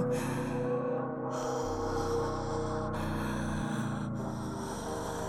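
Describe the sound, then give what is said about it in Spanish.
Slow, heavy breathing of a creature standing in front of a man and breathing calmly over his face, with a few drawn-out, raspy breaths over a steady low rumbling drone. No one speaks. “respirando tranquilamente sobre su cara.”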